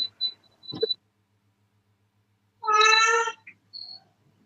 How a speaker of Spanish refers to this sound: es el gato, me imagino.